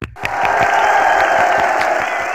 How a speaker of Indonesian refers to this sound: Wih, lagi Indonesia banyak banget tepuk tangan episode ini gitu ya